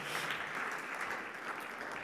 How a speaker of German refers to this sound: Mal Applaus